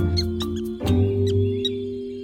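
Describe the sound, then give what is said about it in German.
A mouse deer forages in the jungle, hopping from plant to plant looking for food, giving a few high, quick squeaks and a soft rustling bump, over a steady low drone with no voices. “Dort unter ihm hüpfte der Mausehirsch von Pflanze zu Pflanze und suchte nach Futter.”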